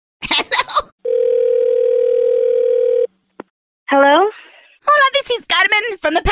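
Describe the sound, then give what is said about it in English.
A steady, unbroken telephone dial tone hums for about two seconds after a short burst of talk, as a complaint call to a Passenger and Public Transportation Enforcement Department is disconnected, followed by a click, a brief vocal sound and more speech. “I believe we were disconnected.”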